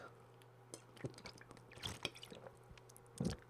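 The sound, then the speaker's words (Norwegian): Someone takes a quiet sip of water at the mic, with a few soft wet mouth clicks and swallows spread over a few seconds against a faint steady hum. “Ah, drakk litt eh, vann.”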